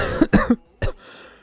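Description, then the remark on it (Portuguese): A burst of three loud, harsh coughs into a microphone in quick succession, then a short pause and a fourth cough, followed by a faint breathy exhale; no talking. “Ai, desculpa, desculpa pela tosse no microfone.”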